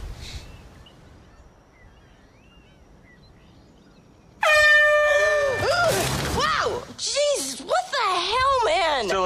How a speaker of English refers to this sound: Was the air horn really necessary? For comedy, absolutely.